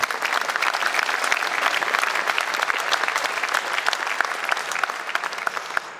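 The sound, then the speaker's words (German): An audience applauds steadily for about six seconds, a dense crackle of many hands clapping at an even, sustained loudness, with no one speaking over it. “Auch dafür nochmal einen Applaus.”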